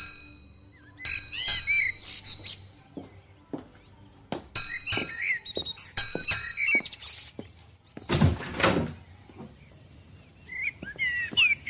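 A house door clunks and creaks open after the doorbell rings in a few chime-like tones and scattered knocks, fairly clear, with no one speaking.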